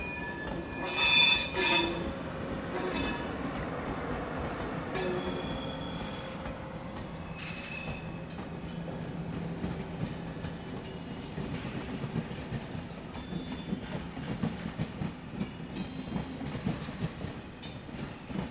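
Train wheels squeal in piercing high-pitched whines as a train rolls through Liège-Guillemins railway station in Belgium, loudest near the start, over a steady low rumble of railcars and rhythmic track noise.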